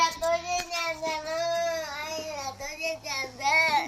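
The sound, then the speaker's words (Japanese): A young child cries and wails continuously in long, strained, high-pitched sobs, loud, with brief catches of breath between cries, upset because their ice cream has melted. “アイスが溶けちゃったって泣いてますね。うちの子がね。”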